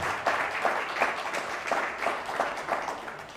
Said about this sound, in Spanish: Bueno, una vez más, fuerte aplauso a todos.